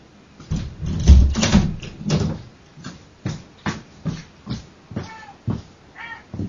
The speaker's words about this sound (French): la porte